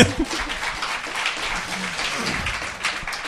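Steady applause from a small group welcoming a new guest, dense crackling claps sustained at an even level for a few seconds, with a few brief voice sounds mixed in underneath.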